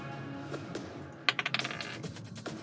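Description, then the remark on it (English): A quick clatter of hard little clicks as physical dice tumble across a tabletop, with one sharp hit followed by several fast, fading bounces. It is fairly loud, over a quiet hum. “And oh yeah, I was doing physical dice anyway.”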